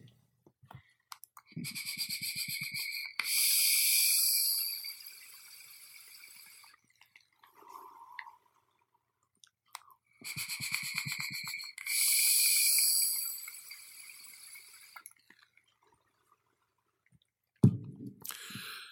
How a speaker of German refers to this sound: Ich nehme nochmal einen Zug daraus.